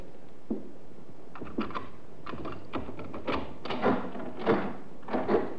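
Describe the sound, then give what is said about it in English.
A key scrapes and clicks in a lock, then a door with broken glass pulls open and jerks to a stop against a rattling door chain, a cluster of sharp metallic clatters. “Funny, I've never known your mother to use the chain on the door in her life.”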